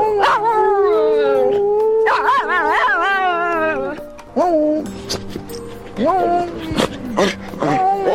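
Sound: dog howling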